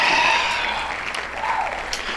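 Steady, dense hand clapping fills about two seconds, a continuous crackling patter that holds an even loudness throughout, with no voices over it.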